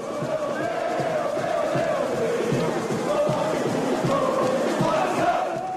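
A large crowd of Náutico football fans cheers and chants together in the street, heading to the Aflitos and celebrating the championship, a steady, dense roar of many voices sustained throughout with no pauses.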